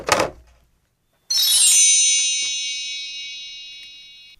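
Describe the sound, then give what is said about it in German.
A short clunk, then after a brief pause a bright, high, shimmering chime like a magic wand sparkle rings out loudly and slowly fades over about three seconds, with no talking. “Vielleicht so ein, so, ein, so ein Feenzauber wie so ein Zauberstab?”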